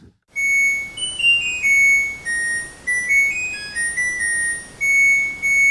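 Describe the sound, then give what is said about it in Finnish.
An LG washing machine's laundry-finished melody: a bright, electronic beeping tune of pure tones stepping up and down in pitch, played alone and fairly loud for several seconds. “Joo, niin eli kuunnellaan tähän nyt vielä kertauksena tämä alkuperäinen LGn Pyykit valmiina on kappale.”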